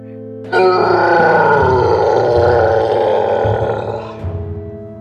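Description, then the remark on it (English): A huge goblin lets out one long roar of rage, furious and loud, rough and growling throughout, holding for several seconds before breaking off into a brief rumbling tail. “The huge goblin let go of her and began to roar with rage.”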